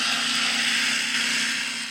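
A small Panasonic compact film camera with a 35mm f3.5 lens whirs steadily for two seconds as its motor tries to wind film. It is a continuous buzzing drone with a low hum underneath, without any pauses or voices, and it is not the shutter sound.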